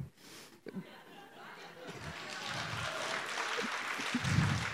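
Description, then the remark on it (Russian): Audience applause swells into a dense, steady patter of many hands clapping, building louder over a few seconds with some low murmuring underneath. “Ну, вы аплодируете”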